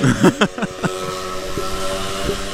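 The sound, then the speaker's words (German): A motor scooter's engine gives a steady, buzzing drone with a whiny, harmonic tone that holds at an even loudness, while a few brief voice sounds come at the start. “Ah, nee, es ist doch nur ein Roller.”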